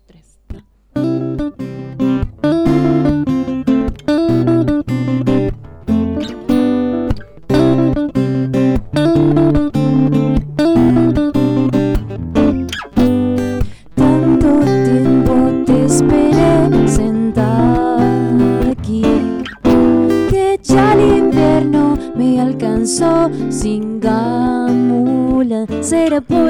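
A live band plays a steady, upbeat song with a vocalist singing over drums and guitars, loud and close, continuing without pause for the whole stretch.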